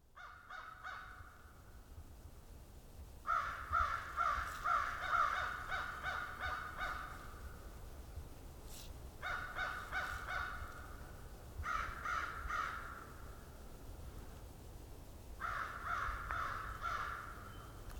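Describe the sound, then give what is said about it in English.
American crows caw in repeated harsh bursts at Valens Conservation Area in southern Ontario on January 1, 2021, several calls in quick series separated by short pauses, over a low steady background rumble with no talking. “And the first bird I'm recording this year is some American crows.”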